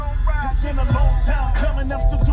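A West Coast hip-hop track plays loudly and steadily, with a heavy booming bass line, a smooth melodic synth lead and punchy drum hits, and no talking over it.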